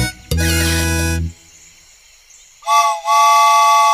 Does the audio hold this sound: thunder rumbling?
no